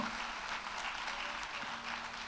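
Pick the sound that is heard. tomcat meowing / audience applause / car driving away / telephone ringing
audience applause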